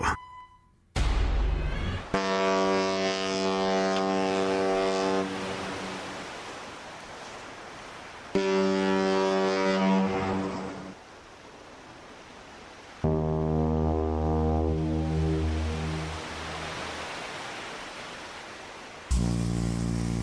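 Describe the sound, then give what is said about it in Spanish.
Deep, droning ship horns sound in several long, loud blasts, one after another, each a low, rich tone that holds for seconds over a steady hiss of background noise. “Bueno, nuestra historia sonora de hoy estamos escuchando sonidos de, buques, ¿no?”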